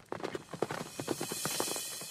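Horses' hooves clip-clop in a quick, steady rhythm of many sharp knocks, moderately loud, with no voices, ending in a brief louder thump, as two riders on their horses set off toward a temple by the seashore.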